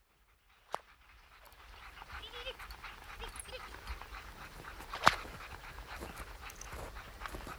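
A team of nine sled dogs pulling a sledge pants and yelps in a steady, noisy chorus outdoors, with a couple of sharp, louder barks cutting through near the start and again midway.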